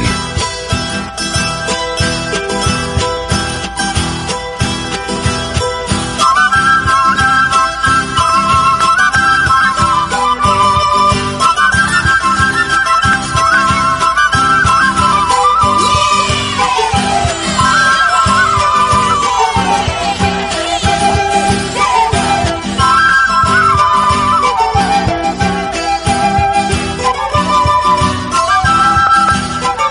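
An Ecuadorian Andean folk song, recorded with a Peruvian group, plays throughout, with a bright, wavering melody line rising and falling over a dense, steady strummed and percussive accompaniment, loud and continuous with no talking.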